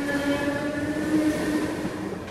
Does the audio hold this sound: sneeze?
no